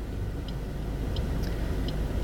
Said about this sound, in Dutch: En ehm, ik moet even wachten op een, eh, op een hele rij auto's.